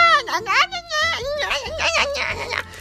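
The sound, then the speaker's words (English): A voice imitates children screaming outside, a loud, high-pitched warbling shriek that rises and falls in quick waves for about three seconds without a break. “I hear all these kids outside screaming. They're like, they're like”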